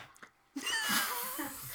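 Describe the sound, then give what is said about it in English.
A single sneeze bursts in suddenly after a brief quiet moment, followed by a noisy, breathy tail. It is moderately loud, with no talking. “Bless you”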